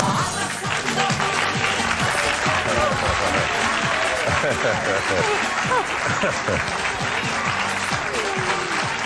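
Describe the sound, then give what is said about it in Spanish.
Sustained applause from a live studio audience, loud and steady for the whole stretch, with voices chattering and calling out underneath the clapping. “¿Cómo, se nota ahí el calorcito del público?”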